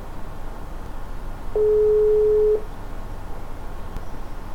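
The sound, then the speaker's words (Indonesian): A single steady telephone ringback tone sounds for about a second as a call is placed to a junior fellow student, a clear mid-pitched hum over a low background hiss, with no one speaking. “Uh, ah, mungkin sekarang gue telepon dulu.”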